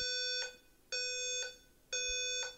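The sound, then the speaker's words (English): A building fire alarm blares in three loud, evenly spaced electronic bursts at E1, where a recording is under way, each a harsh, buzzy tone rich in overtones ending with a click, with brief quieter gaps between. No one speaks. “it seems like the fire alarm is going off here where we're recording at E1 right now.”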